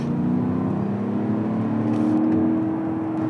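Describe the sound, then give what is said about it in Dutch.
A 435 hp 4-litre V8 engine in an Audi SQ7 SUV, fitted with an electric compressor, drones steadily, its low, rich rumble climbing slightly in pitch as it revs, with no voices present. “De nieuwe SQ7 ja, die moeten tegenwoordig doen met een schamele 435 pk sterke 4 liter V8.”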